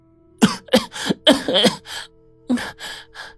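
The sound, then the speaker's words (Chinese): A voice imitates harsh, violent coughing: a rapid series of raspy, breathy bursts in two clusters, loud and rough, with no speech. “白程程剧烈咳嗽了两声，缓缓睁开了眼睛。”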